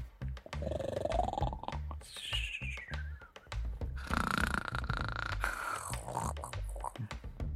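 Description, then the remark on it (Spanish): Loud, exaggerated snoring of men lying deeply asleep on the ground fills the whole stretch, a low rattling buzz with rising, whistling tones on each breath, like several sleepers snoring at once, continuous. “Están roncando como leones.”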